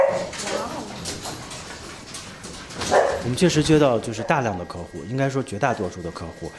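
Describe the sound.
A cloned puppy yaps and barks in quick, high bursts as it jumps up at a man's leg at a pet-cloning company on the outskirts of Beijing, China, while a person talks over and after the excited yapping.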